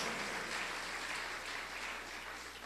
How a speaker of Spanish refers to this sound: dale fuerte ese aplauso a Dios.